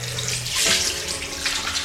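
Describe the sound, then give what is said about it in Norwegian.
Steady running water from a tap splashes over hands being washed with soap, a broad hissing rush with brief louder swells of splashing and rubbing; no one speaks. “Dette her, folkens, er faktisk eh, lyden av rennende vann og hender som vasker seg med såpe.”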